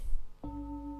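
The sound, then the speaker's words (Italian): A bell is struck once after a short stretch of low background rumble. Its clear, steady ringing tone then sustains evenly without fading for the rest of the moment. “io sento questo suono, se io mi chiedo la coscienza auditiva che percepisce il suono della campana, ok?”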